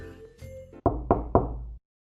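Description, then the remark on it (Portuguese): Three firm knocks on the door of a family home during dinner, in quick, even succession and fairly loud, following a faint humming background; no one speaks. “Enquanto ela se levantava e minha mãe ia se sentando ao meu lado, todos nós congelamos quando alguém bateu na porta.”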